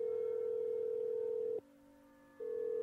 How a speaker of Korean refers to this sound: 아버지가 옛날에 쓰시던 핸드폰을 찾아 전화 번호부를 뒤져 큰아버지 번호를 찾은 다음 곧바로 집 전화로 전화를 걸었다.